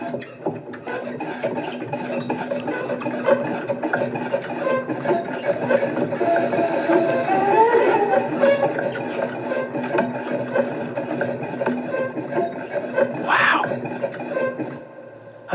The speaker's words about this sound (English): it's really primitive. I like it because I can I can oh do sort of squeaky wheels and stuff, sort of like this.